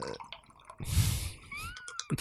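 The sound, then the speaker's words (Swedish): A splashy stream of urine pours into a glass for about a second and a half, its pitch rising as the glass fills, then a few trailing drips. “var tvungen att kissa.”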